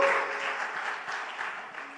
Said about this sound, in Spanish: Vamos, iglesia, dale un aplauso fuerte a Jesús. Gracias, Jesús. ¡Uh!